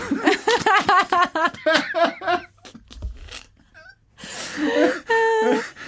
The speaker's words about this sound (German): Geht's mit dem Husten? Ja, ja, danke.